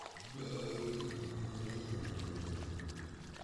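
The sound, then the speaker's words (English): A toilet flushes with a loud, steady rush of water and a low gurgling rumble that runs on for several seconds without a break. “Probably just someone with a really intense flush.”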